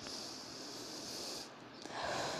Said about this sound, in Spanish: cuando vayas a inhalar, tienes que inhalar todo hasta que el estómago te quede así totalmente retenido y después exhalas y sueltas todo el estómago.